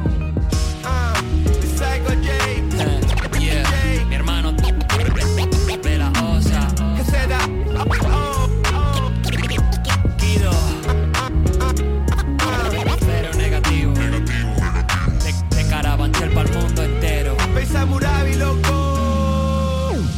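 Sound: rap song playing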